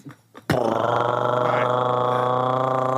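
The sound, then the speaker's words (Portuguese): A voice imitates a helicopter as background noise for a radio traffic report: after a brief soft lead-in, a loud, steady, buzzing drone starts abruptly and holds without pause, with a rapid fluttering texture throughout. “vamos ao trânsito na rádio tal. BG de helicóptero.”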